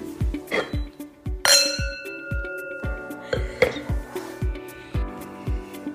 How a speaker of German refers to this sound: So, liebe Leute, weiter geht's mit einem Grauburgunder. Er ist trocken und der Jahrgang ist 2020. Wollen wir anstoßen, liebe Maddie?